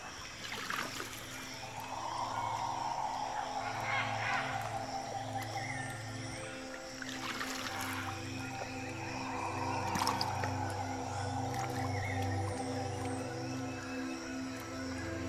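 Canoe paddles swish through the water of the Tapajós River during a canoe ride, in slow strokes roughly every three seconds, over a steady low hum and faint outdoor ambience. No one speaks.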